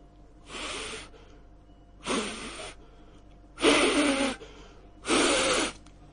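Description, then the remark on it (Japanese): A voice imitates a man on the other end of a phone call frantically blowing breath into the phone: four loud, breathy bursts, each about half a second long, separated by short pauses, with no speech. “必死に相手が息を吹っかけてくる音がするんですよ。”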